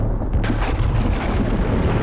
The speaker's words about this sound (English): Thunder fills the heavens.